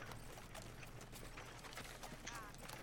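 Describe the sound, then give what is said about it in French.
Horse hooves clip-clop at a steady walking pace as the horses keep moving forward, a run of sharp repeated knocks over a low, continuous background hum, fairly quiet. “Vos, chevaux continuent d'avancer.”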